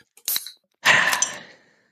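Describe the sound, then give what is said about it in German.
A beer bottle is opened: a brief sharp click from the cap, then a louder airy hiss of escaping gas that fades over about a second. No one speaks. “Darum würde ich sagen, machen wir das Bier auf.”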